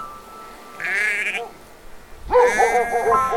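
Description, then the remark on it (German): A flock of sheep on a meadow at a forest edge outside the town of Quedlinburg bleats in two wavering calls, a shorter one followed by a louder, longer bleat, with a quiet outdoor background and no talking. “Die hatten ihre Schafherde auf eine Wiese am Waldrand vor der Stadt getrieben, machten nun ein Päuschen unter einem schattenspendenden Weidenbaum.”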